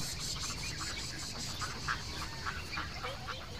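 ducks quacking

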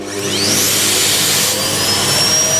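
vacuum cleaner running

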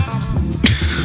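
sneeze

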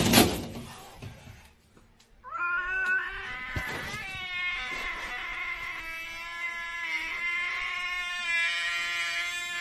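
cat yowling

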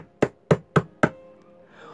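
knocking on a door

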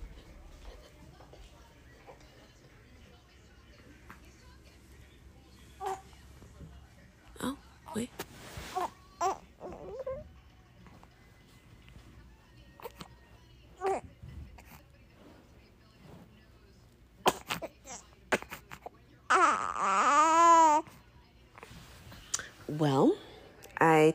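baby crying

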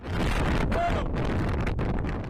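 strong wind

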